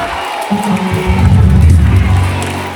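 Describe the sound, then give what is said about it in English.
A church audience on the first Sunday of 2020 rises in loud, sustained shouting and cheering, a dense swell of praise to God that builds and holds for a few seconds. “Can you lift up your voices and exalt the name of God?”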